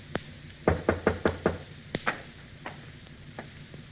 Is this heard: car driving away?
no